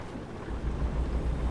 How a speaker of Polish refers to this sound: Deszcz pada.